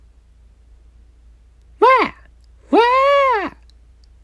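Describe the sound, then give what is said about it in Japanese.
A voice imitates a loud "Faa!" shout heard from outside at around 11 at night, with two drawn-out, rising-and-falling cries, the first short and the second longer, both forceful against near silence. “テレビをこうずっとぼーっと見てて11時くらい夜の11時23時ぐらいに突然ね外から「ファー!」って大声が聞こえたんですよ。”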